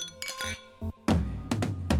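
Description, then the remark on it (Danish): Glasses clink together in a toast, several bright ringing taps in quick succession, fairly loud, over a low background rumble. “Skål. Skål Skål.”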